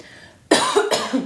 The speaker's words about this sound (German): ich fülle die Stille mit meinem Husten. Ja, fülle, fülle die Stille mit deinem Husten.